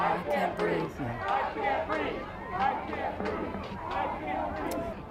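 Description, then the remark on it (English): A large protest crowd in the street fills the space with a dense, steady roar of overlapping voices and shouts, sustained throughout, with rhythmic surges suggesting chanting. “and we heard the sounds and stories of protests echo in the streets themselves.”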